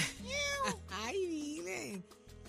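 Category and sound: animal, cat meowing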